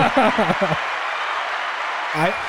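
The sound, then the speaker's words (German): A sound effect of a crowd bursting into applause and cheering, played as a celebration in a game: a steady dense wash of clapping with excited shouted voices rising at the start and again near the end. “Dann mach doch mal den Jubel.”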